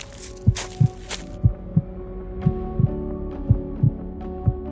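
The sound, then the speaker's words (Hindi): A man's own steady heartbeat, heard as he walks in deep silence, thumps in low lub-dub pairs, about five beats at an even pace, over a faint droning hum, with a brief airy whoosh at the start. “और तो और उसके आसपास इतना सन्नाटा था इतनी चुप्पी थी कि चलते हुए उसे अपनी धड़कने भी साफ साफ सुनाई दे रही थी”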